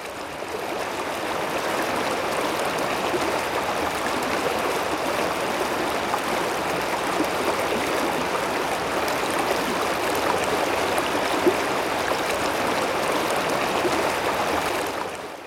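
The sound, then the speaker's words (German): Steady rushing of a flowing river, continuous, with a dense churning wash of water that holds an even level throughout and no voices. “Gesegnet und geschlagen zieht er über den Fluss, hinein in die ungewisse Zukunft.”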